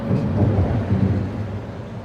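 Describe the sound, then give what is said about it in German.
A continuous deep, heavy rumble of trucks thundering over a motorway bridge on the Oder, loud with a broad low-end roar that swells slightly and then eases off. “hören wir da LKWs, die über eine Autobahnbrücke donnern.”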